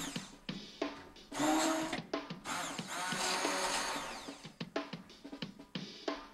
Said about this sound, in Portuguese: Colocamos agora o caldo de galinha e o caldo de vegetais, os espargos já partidos e com a varinha mágica vamos fazer o caldo com que vamos completar o risoto.